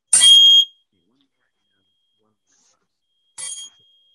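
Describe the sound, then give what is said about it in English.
A crystal tuned to 528 hertz is struck twice, each hit giving a bright, high, shimmering ring. The first strike is louder and rings for about half a second; after a silent pause, a softer second strike follows. “I hit this on this crystal and the crystal shattered.”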